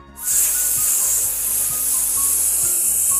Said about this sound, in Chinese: 卡皮蹲下来，在充气池子边上仔细的听，他的大耳朵听到了非常小。非常小的，嘶嘶